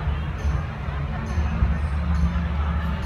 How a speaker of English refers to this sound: We're gonna let it play a couple of times right? So you can hear chatter, you can hear birds, you can hear yeah. music, right? And if somebody was on a mic, you would be able to hear them.